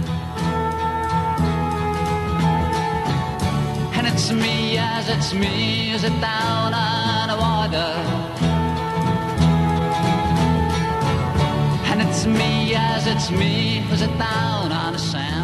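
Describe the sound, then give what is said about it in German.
An archival recording from a 1970 TV talent show: a singer performs the melodic pop song that won the contest, over a full band, with steady rhythm and bright, layered instruments. The music plays loud and continuous for the whole stretch, with no talking over it. “du hast 1970 gewonnen äh, mit diesem Titel und das Outfit passt ja immer noch.”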